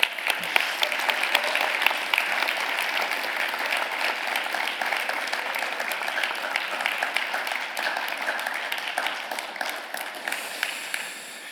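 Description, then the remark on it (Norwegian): Sustained audience applause for a person on their way up to the front, a dense crackle of many hands clapping steadily at a fairly loud, even level for about eleven seconds before starting to thin out at the end. “Han òg fortjener en applaus på vei opp.”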